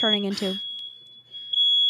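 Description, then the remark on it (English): A fire alarm sounds a shrill, high-pitched tone that holds steady throughout, fairly loud, with a person briefly talking over it at the start. “Oh, yeah, that's the fire alarm going off.”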